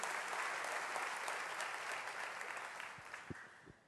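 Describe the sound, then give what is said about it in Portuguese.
An audience applauds loudly, a dense wash of many hands clapping at once that stays steady before slowly easing off, with a few sharper claps standing out near the end. “Então aplauda ele bem forte em nome de Jesus aí, irmão.”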